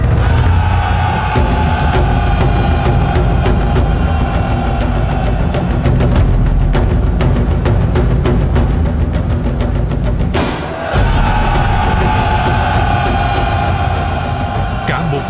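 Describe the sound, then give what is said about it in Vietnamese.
A dense, loud roar of many voices of an army at the Như Nguyệt river shouting battle cries together, sustained and massive, with a brief break before the din swells again. “bỗng có tiếng hò treo vang trời chuyển nước”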